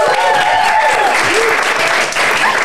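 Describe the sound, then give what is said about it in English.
A live audience in the Rikolto office in Leuven claps steadily, a dense, continuous wash of applause lasting a few seconds, with a few faint whistles or cheers rising through it. “Now, I should also welcome our lovely live audience because we are recording this podcast in the Rikolto office in Leuven there's quite many of you, so it might be good.”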